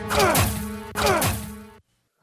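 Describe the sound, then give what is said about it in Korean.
Two loud punch hit sound effects, one right after the other, for Moses's punch striking an Egyptian official, each a heavy impact with a swooshing, ringing tail before the sound cuts to silence. “너무 화가 났는지 모세가 휘두른 주먹에 그만 애굽의 관료가 죽고 말았습니다.”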